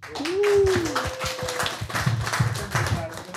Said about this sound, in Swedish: Ska vi ta in eh, kvällens andra gäst, Matti Alfonsetti? Applåd!